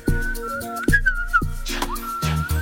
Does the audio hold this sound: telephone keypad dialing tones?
no